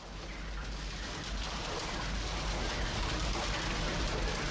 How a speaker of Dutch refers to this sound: De shredder, ja, zo'n machine met ronddraaiende messen, maar die lieve kuikentjes met een lopende band ingemikt worden. En dan weg zijn ze. 40 miljoen haantjes per jaar alleen in Nederland. Wereldwijd zijn het er 5 miljard.